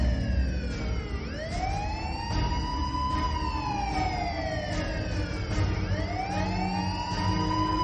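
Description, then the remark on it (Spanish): Police and ambulance sirens wail loudly, their overlapping tones sweeping slowly up and down over a steady low rumble of traffic, with no one speaking. “Policías, ambulancias.”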